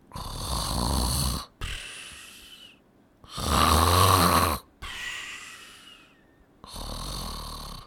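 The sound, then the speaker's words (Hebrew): Heavy snoring of sleeping Midianite soldiers at their guard posts at night: three long rasping inhales, each followed by a softer wheezing exhale, in a slow steady rhythm with no talking. “מה זה? החיילים המדיינים ישנים?”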